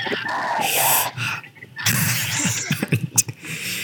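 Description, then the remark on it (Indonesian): Loud breathing blows straight into the microphone in rough, gusty bursts, with a brief lull in the middle before several sharper puffs of air follow. “Itu nafas semua bangsat.”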